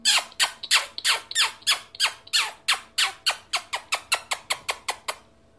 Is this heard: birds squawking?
yes